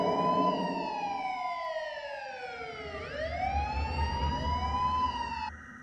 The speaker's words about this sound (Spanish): Llegó la policía y la ambulancia, pero nada se pudo hacer.